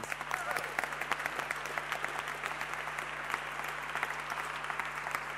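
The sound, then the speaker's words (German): Steady applause from a crowd, a dense patter of many hands clapping at an even level for several seconds, with no voices standing out. “Gebt ihnen doch einen dicken Applaus.”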